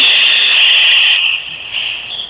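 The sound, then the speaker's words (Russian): A person imitates the roar of Niagara Falls with a steady, breathy hiss, loud, that briefly falters and then resumes for a couple of seconds. No words are spoken. “изобразить этот звук, но желательно не используя санузел.”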